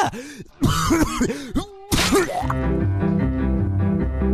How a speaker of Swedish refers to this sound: Och än idag så kan jag hosta upp adamsäpplet när jag vill. Titta!